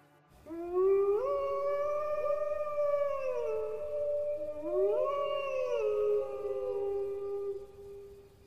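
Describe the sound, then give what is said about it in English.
Two long, eerie howls rise and slowly fall, one after the other, each drawn out for several seconds. They are loud and close, with no talking alongside. “To this day, there are numerous reports that the ghostly spirit of Emily Isabella Burt still roams the countryside by the light of the moon, and often you can hear her howling.”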